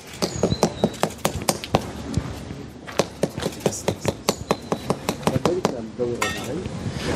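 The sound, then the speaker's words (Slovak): A hammer taps repeatedly on a golden-coloured Stolperstein memorial stone, setting it into the pavement on Kúpeľná street in Bratislava in memory of Holocaust victim Dr. Emil Pastor. There are dozens of sharp strikes in a steady, quick rhythm. Birds chirp outdoors, and faint voices murmur in the background. “čo počujete, je zvuk kladiva, ktoré práve osádza kameň pre doktora Pastora.”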